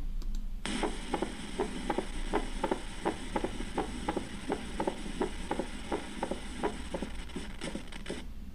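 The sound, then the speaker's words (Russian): A mitral valve opening snap in a heart recording: a steady, fast series of sharp, crisp clicks with the heartbeat, repeating for several seconds over a low, constant hum, with no talking. “Еще раз щелчок открытия митрального клапана.”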